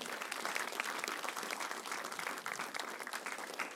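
A crowd gives a big hand clap one more time, applauding steadily in a dense wash of many hands clapping at once, fairly loud and sustained without pause for the whole stretch, with no voices standing out.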